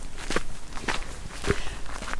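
Steady footsteps at an even walking pace, four distinct scuffing steps about half a second apart, moderately loud over a faint background hiss, with no one talking; someone walking from the S-Bahn in Erding, Germany, to the Museum Erding.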